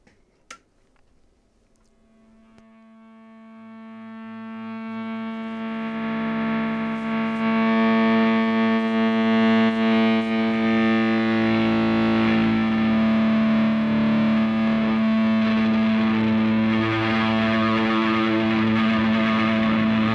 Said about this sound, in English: brand new song that came out today, and there is a language warning on it